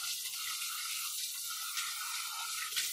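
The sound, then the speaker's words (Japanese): Steady running water from a tap in a kitchen, a continuous bright hiss filling the background as dishes with spicy yakisoba sauce residue are washed under the flow, with a few faint clinks and splashes near the end. “皿を洗うだろそしたら洗った時の残りがが、宙を回って鼻に入ってくるんだ。”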